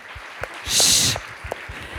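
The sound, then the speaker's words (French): A brief, loud burst of audience applause swells and fades within half a second, with a few scattered sharp claps and low thumps around it and no talking. “Vous pouvez m'applaudir.”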